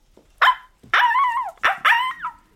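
A small dog barks four times up close, sharp and high-pitched, with the middle barks stretched into whiny, yelping calls; no one speaks.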